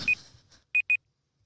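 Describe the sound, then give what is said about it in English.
A timer beeps three times with short, high electronic tones: one beep, a pause, then a quick pair, clear over a quiet background. “What is that? Oh, your oh. timer.”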